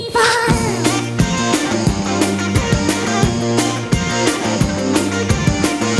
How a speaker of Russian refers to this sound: Взяли песню, немножко газу дали, больше, ускорили ее. Она, Она сейчас будет звучать.